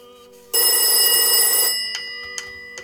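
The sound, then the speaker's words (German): A loud old-fashioned, cream-coloured rotary dial telephone belonging to a hermit rings in one sustained burst of about a second, its clanging metallic tone dying away, followed by a few faint bell-like rings, with no talking. “der Eremiter Telefon.”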